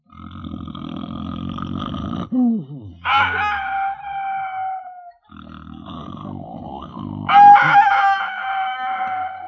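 A rooster on a farm crows twice at 4:30 in the morning, loud, each call a long drawn-out cock-a-doodle-doo with a few seconds of gap between, over a steady low rumble in the background.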